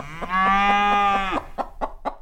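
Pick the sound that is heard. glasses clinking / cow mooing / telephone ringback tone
cow mooing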